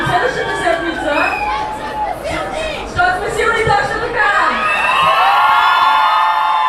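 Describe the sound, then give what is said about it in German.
A crowd of nearly 10,000 people on a large square in Sofia, Bulgaria, shouts together in Bulgarian in loud, rhythmic bursts, many voices rising and falling in unison like a rally chant, sustained throughout, during a speech on equality. “Und 10.000 Leute schreien gleichzeitig, wir sind hier, wir wollen gesehen werden und wir gehören zu diesem Land genauso wie jeder andere und jede andere auch.”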